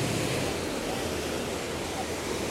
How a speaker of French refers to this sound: Ainsi s'achève ce court séjour à Casablanca et je vous laisse avec le bruit des vagues.